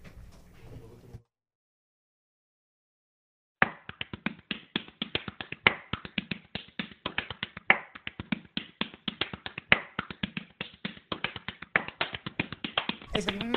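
Hands pat a belly in a fast, steady run of dull, fleshy slaps that keeps up for about ten seconds, loud and irregular in accent, after a brief murmur and a pause of silence.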